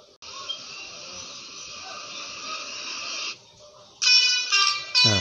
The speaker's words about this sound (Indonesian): hanya iramanya tuh irama-irama unik gitu nggak cuma klakson yang tun tet gitu loh seperti ini contohnya